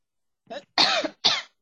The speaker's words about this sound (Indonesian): aduh batuk Pak